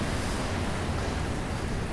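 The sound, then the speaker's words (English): A steady, even wash of sea surf rolls on without pause against the shore on a foggy day, broad and hissing with a low rumble beneath, with wind mixed in, while people swim in the sea. No one speaks. “So, with that, I'll leave you all while I look out in the foggy sea at these brave people swimming in the sewage.”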